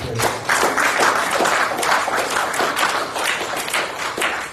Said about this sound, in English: Put your hands together, give God a hand clap of